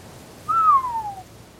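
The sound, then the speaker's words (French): A single clear, loud whistled note slides gently downward in pitch for under a second, with no voices and only a faint background hush around it. “et alors qu'elle réfléchit à toutes les possibilités, sa voisine Salomé se met à siffloter à tue-tête.”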